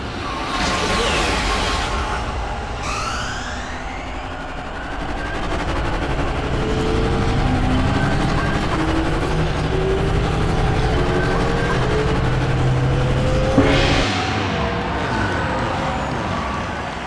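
Roaring Star Wars Podracer engines dominate throughout as podracers race, a 50-lap race under the sun, with rising and falling whines as vehicles streak past at high speed, loud and continuous, with sharp whooshing passes near the start and again toward the end.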